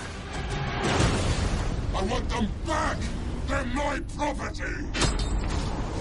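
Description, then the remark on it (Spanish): The Mad Max movie trailer audio plays steadily in the background of an Acústica Radio broadcast: rumbling engines, grinding mechanical creaks and deep booms mixed with shouting voices and tonal, music-like swells, dense and loud throughout. “Estamos escuchando de fondo el tráiler de Mad Max.”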